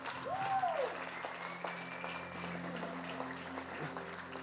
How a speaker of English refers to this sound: Guys, these people are awesome. Yeah, you can clap.